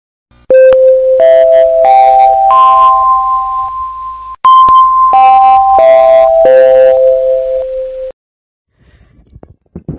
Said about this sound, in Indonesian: Bel tanda masuk telah berbunyi.